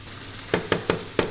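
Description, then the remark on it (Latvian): Onions sizzle in a pan on a wood-burning stove with a steady hiss, broken by four quick scraping knocks of stirring at an uneven pace. They are being fried for a Latgalian dish of onions with sour cream, served with boiled new potatoes. No one speaks. “Meistarklases vadītājs Ēriks Kontrāts stāsta, ka cepti loki latgalē bijis ļoti populārs ēdiens.”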